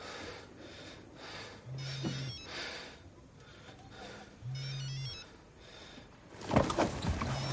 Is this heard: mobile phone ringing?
yes